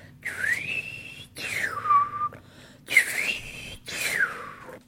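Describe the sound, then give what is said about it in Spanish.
Someone whistles four short, sliding phrases separated by brief pauses, each rising and falling like a simple tune, mimicking a knife-sharpener's little panpipe; breathy, with no talking. “Pero claro, este, a ver, a mí, a mí no me sale como el afilador, porque el afilador tenía como una flautita chiquita de pan, pero no de pan de comer”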